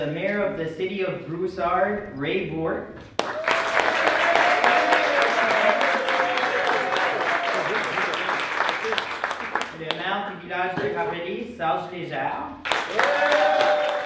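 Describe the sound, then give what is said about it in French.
A crowd at the Congrès mondial acadien breaks into sustained, dense applause for the guest of honour and his New Brunswick counterpart, many hands clapping steadily for several seconds, with a man's voice speaking before it and again briefly between bursts of clapping. “L'enthousiasme qui s'entend dans ces applaudissements trouve son explication dans les propos de Claudette Thériault, la présidente du Congrès mondial acadien, ou CMA, qui prononcera une allocution quelques minutes plus tard.”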